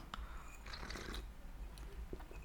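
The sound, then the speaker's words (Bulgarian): A slurping sip of tea, a short airy, wet burst of about half a second against a low background hum, then a few faint mouth clicks. “Ами, това беше адски звучното сърбане, дано не се е чу, чуло много.”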